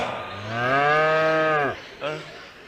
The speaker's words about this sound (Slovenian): Čigava je ta krava?